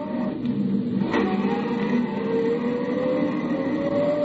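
A car's engine roars steadily at high revs with the gas pedal jammed to the floor, its pitch climbing gradually as it accelerates toward the turnoff for the Austin mine, with a constant rumbling road noise underneath. Loud, with no voices.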